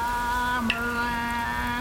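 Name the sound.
rain falling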